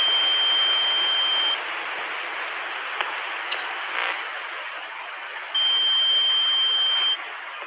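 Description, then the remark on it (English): Two steady, high-pitched electronic tones, each lasting about a second and a half, ring out over a constant bed of hissy radio static, with only static in the gap between them. “So these are the first real tones we've ever received.”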